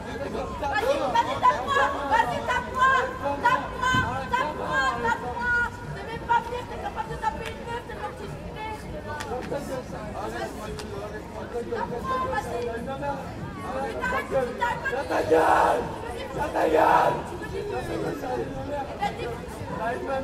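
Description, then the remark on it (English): A rowdy crowd of drunk French kids chatters and shouts outdoors outside a hotel in a steady, overlapping babble, with two louder bursts of yelling standing out near the end. “there were a load of drunk kids outside the hotel”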